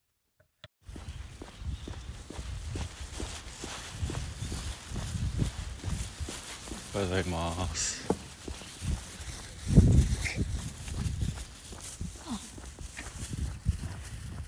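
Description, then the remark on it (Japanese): Steady footsteps crunch along an outdoor path in a nearby park at a relaxed walking pace during a 6 a.m. dog walk on Wednesday, January 24, with a brief spoken greeting exchanged with an elderly woman also walking her dog, and faint ambient rustle in the background. “毎朝近くの公園での犬の散歩を始めて1年以上経ちますが同じく犬を連れてほぼ毎日会う高齢の女性がいます公園を散歩しながらその人と会って挨拶してる音です”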